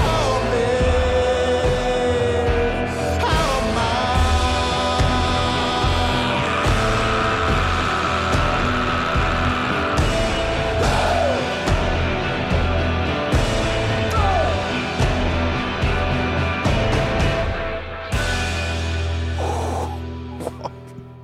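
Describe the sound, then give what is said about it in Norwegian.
A rock singer lets out a long, sustained scream over a loud, dense full-band mix, the howl held for several seconds before the music winds down at the end. “Det, er altså, det skriket på slutten her.”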